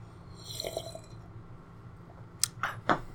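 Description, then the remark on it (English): Someone drinks tea from a mug, with a few short, close sips and wet slurping clicks near the end over a quiet, hissy background. No one speaks. “So a little pissed about that, but I'm still going to drink it because who would I be if I didn't, right?”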